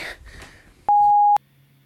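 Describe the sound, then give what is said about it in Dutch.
A single loud, steady electronic beep, the tone of a phone call reaching voicemail, lasting about half a second after some faint breathy noise and followed by a low, quiet hum. “Fuck, dan krijg ik je voicemail.”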